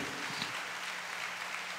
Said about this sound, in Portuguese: Levanta a sua mão e diga: é Jesus Cristo. Então aplauda ele bem forte.